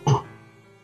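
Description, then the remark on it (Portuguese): A single short, rough throat clearing, a quick gravelly burst that fades into a faint hum and quiet room tone. “tome uma aguinha com mel quando você estiver falando por causa do seu pigarro de família.”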